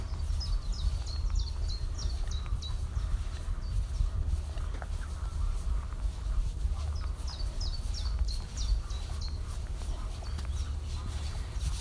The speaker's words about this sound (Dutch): dan hoor je mooie vogeltjes nog.